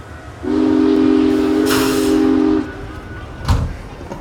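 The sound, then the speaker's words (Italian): A small train climbing through a valley alongside a mountain stream in the Dolomites gives one long, low, steady whistle blast lasting about two seconds, with a short burst of steam hiss, then a dull thump over a constant mechanical rumble. “vediamo un piccolo trenino arrampicarsi per la valle costeggiando il torrente che beffardo viaggia in senso opposto”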